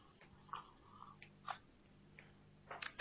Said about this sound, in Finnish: Anteeksi, juon kahvia.